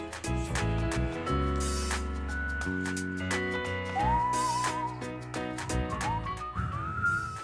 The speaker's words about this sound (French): Ah, j'arrive ah, pas à siffler, c'est pas facile.